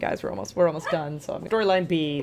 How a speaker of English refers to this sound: So, uh, apologize for the barking